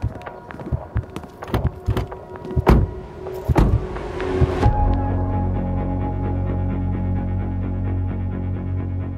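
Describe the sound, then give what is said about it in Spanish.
A flurry of clunks and clicks, like doors and seatbelts, gives way to a car engine starting up and droning steadily as the vehicle drives off, fairly loud. “Sí, tengo el auto acá, súbete.”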